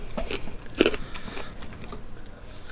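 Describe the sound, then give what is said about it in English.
Crunching and chewing of chocolate-coated candy as a girl chews off the outer chocolate coating rather than eating it whole, with a few crisp, uneven bites and one sharper crack partway through, heard alone without talking. “She's just chewing off the outside bit of the chocolate as opposed to eating the whole thing now.”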